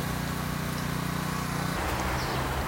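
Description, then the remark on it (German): A lawnmower starts up in the distance, a steady low mechanical drone that shifts pitch partway through as the motor revs, with no one speaking. “Ich hoffe, du verstehst mich jetzt noch, weil da hinten ein Rasenmäher losgeht.”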